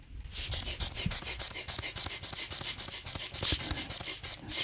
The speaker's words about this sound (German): Also, ich weiß nicht, ob ihr das hören könnt. Also, es quietscht ein bisschen. Es ist ein Blasebalg mit einem kleinen Schlauch, circa 20 Zentimeter, und daran hängt ein Knebel der aufblasbar ist.